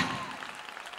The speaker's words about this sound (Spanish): Si usted lo cree, déle un aplauso fuerte al Señor, aleluya.